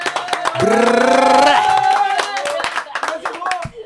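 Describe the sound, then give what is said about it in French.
Applause in the studio of Radio Campus Paris 93.9 during a live broadcast, a small group clapping steadily, with a loud sustained vocal whoop or cheer over the first half before the clapping carries on alone. “on peut applaudir, on peut applaudir”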